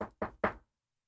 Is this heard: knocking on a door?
yes